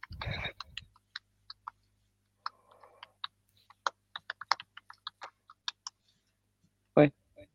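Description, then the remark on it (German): Irregular computer keyboard typing: a string of sharp clicks tapping at an uneven pace, with a louder burst of keystrokes near the start and a heavier thump toward the end. “meine Tastatur ist manchmal ein bisschen doof.”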